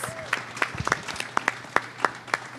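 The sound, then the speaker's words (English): Audience applause for speakers at a question-and-answer session, thin and scattered: a loose run of separate sharp hand claps at an uneven rhythm, moderately loud, with a low hum and faint murmur underneath. “Clap it up.”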